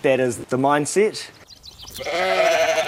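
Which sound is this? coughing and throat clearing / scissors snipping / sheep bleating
sheep bleating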